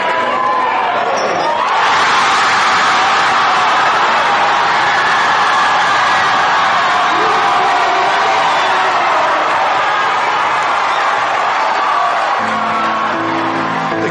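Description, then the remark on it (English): A large indoor crowd at a basketball game in Kentridge on a rainy Tuesday night erupts into loud cheering and whoops after a quieter start, then holds a dense, sustained roar for over ten seconds, with a ball bouncing somewhere beneath it. “Everybody here, just cheer on these guys.”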